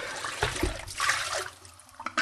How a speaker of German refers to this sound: So, wunderbar. Der Lauch ist gar. Ich gieße den eben ab.